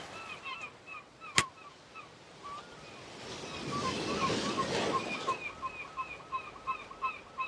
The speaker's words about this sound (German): Ich bin jeden Tag am Meer. Wir sitzen hier am Strand.